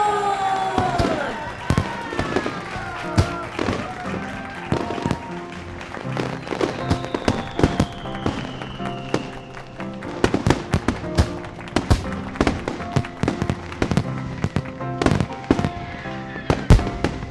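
sound effect, fireworks exploding

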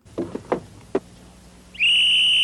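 signal or alarm, whistle blown

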